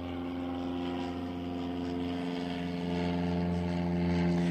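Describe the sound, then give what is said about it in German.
A propeller airplane drones overhead, its steady engine hum with strong harmonic tones slowly swelling louder over several seconds, with no talking. “ist eine richtig schöne dramatische Pause jetzt mit dem Flugzeug, dass du setzen kannst.”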